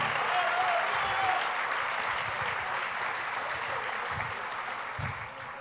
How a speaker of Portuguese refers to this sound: Dá um aplauso a Jesus aí, me ajuda aí.